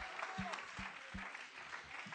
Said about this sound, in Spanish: Clap your hands to the Lord. Ahora un aplauso al Señor Jesús.